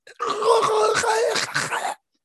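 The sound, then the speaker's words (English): A voice imitates strained, garbled choking gasps, a continuous groaning rasp with wavering pitch lasting under two seconds, moderately loud, with no other talk. “if you're being properly choked you can't scream yeah which that was bothering me yeah yes i'm like come on like some garbled gasping or just some”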